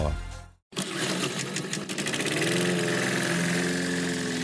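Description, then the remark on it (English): A small engine sputters briefly, cuts out for a split second, then catches and settles into a loud, steady, buzzing drone, like a lawn mower running. “Mowers, start your engines.”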